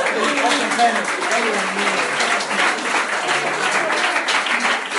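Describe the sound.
Steady audience applause for a 17-year-old who has just counted through five repetitions, a dense, even wash of many hands clapping at constant loudness, with a few voices mixed faintly into the crowd noise.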